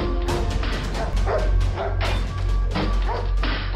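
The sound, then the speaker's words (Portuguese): A family dog barks frantically in a rapid series of sharp, loud barks over a steady low rumble of background noise, with no one speaking. “Mas pouco tempo depois, o cachorro da família começou a latir desesperadamente.”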